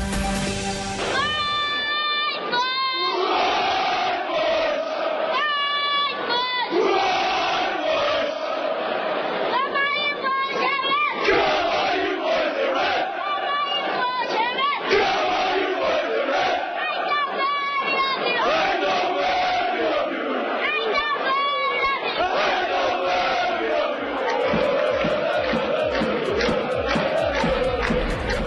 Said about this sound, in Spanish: ¿Qué tal ese muchachito? ¿Cuántos años tiene? Oiga, grito vigoroso y maneja toda la tribuna detrás de una de las porterías del estadio del PSV Eindhoven.